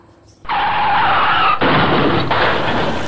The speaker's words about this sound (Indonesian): Loh, loh, loh, loh. Kenapa lagi nih motor? Ya Maaf ya, Mas. Motor saya mogok lagi.